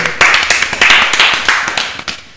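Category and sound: crowd, clapping hands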